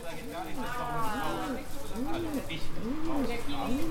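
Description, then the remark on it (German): A pigeon coos repeatedly in a steady rhythm, low rounded calls rising and falling about once a second, moderately loud against a soft background hiss. “Als die Taube zurückkehrt, ist Mitternacht schon lang vorbei.”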